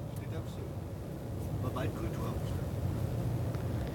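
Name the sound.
car interior road noise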